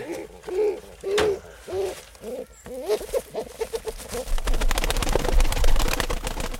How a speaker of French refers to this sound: nous avons ici un rebelle. C'est un. C'est un pigeon assez dangereux. Faut l'avoir avant que lui vous ait.